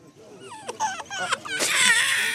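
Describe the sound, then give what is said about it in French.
A baby cries after a vaccine injection in the upper left arm, in short, rising wails that build into a loud, sustained shriek near the end, intense. “Est-ce que euh, ça vous fait bizarre de le voir pleurer, votre bébé, quand il est vacciné Ça nous fait du mal.”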